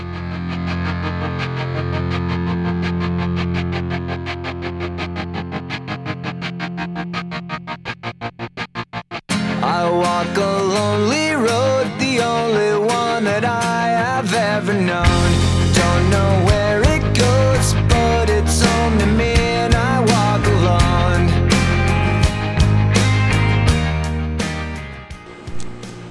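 A mellow song plays on Atmósfera Radio 105, opening with sustained tones over a soft steady pulse before a fuller arrangement swells in, with deep bass joining partway through and continuing to the end.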